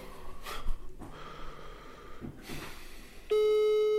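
After a few seconds of breathy snorting and rustling, a steady, loud telephone ringing tone cuts in near the end and holds to the finish as the call connects.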